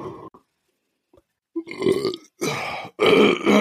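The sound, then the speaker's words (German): A long, loud burp rumbles up from deep in the throat, rising in a few guttural surges after a brief quiet, with no talking. “Aber der hörte sich an, als, äh, na, den hast du schön von unten hoch.”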